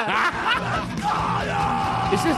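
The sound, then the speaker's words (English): A loud, dense burst of screaming music with harsh yelled vocals, a short heavy-rock jingle sent in by a listener, driving steadily for a couple of seconds without a break. “And I hate screaming music. Somebody sent this in.”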